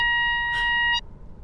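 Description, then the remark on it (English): A single loud electronic beep from a small yes/no box device holds steady for about a second, then cuts off abruptly into quiet room noise. No one speaks. “The yes no box. Um, beep three times to.”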